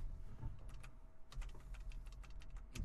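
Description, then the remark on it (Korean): Rapid keystrokes clatter on a broken computer keyboard whose keys are not responding, a quick burst of clicks, a short pause, then another flurry of uneven tapping, moderately loud over a low background hum. “키가 안 먹어. 아 키보드가 꺼져.”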